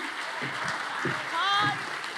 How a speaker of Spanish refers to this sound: Y si ese eres tú, dale el aplauso mejor de ahí.